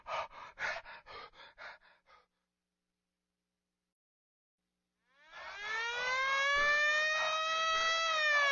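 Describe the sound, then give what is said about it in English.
Several heavy, breathy pants fade out, then after a pause an ambulance siren wails in, rising in pitch and holding loud and steady to the end. “The little pigs called an ambulance for the wolf.”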